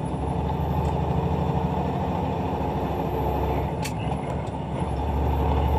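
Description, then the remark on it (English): A heavy truck engine rumbles loudly and steadily, dipping briefly near the end before the revs climb again as the driver shifts up into a higher gear with little use of the clutch, with a short hiss of air. “He's not even using All the clutch. That we're up to go on high gear.”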